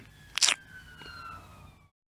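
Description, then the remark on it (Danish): A faint ambulance siren wails outside, a steady tone that sags slightly in pitch as it passes, with a brief rustling thump near the start, then fades out. “Om, det var Jamen, der var lige en ambulance En ambulance siger, at nu kom sindssygeanstalten for at hente mig.”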